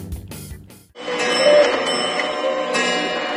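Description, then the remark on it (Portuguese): A clutter of clocks chime and ring together at eight o'clock in a dense, bright jangle of overlapping bell tones, loud and sustained, following a few brief clattering hits at the start. “São os meus relógios que eu estou ouvindo? São! São oito horas!”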